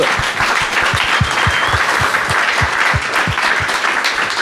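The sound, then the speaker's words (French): A crowd applauds a candidate after his campaign speech, dense steady clapping with a few stronger rhythmic claps standing out, continuous and fairly loud throughout with no voices. “Très bien, on peut applaudir”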